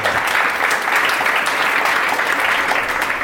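A crowd applauds steadily for a few seconds during a poetry segment on Radio Arte Scrittura. It is a dense, loud wash of clapping that holds an even level throughout, with no voices breaking through.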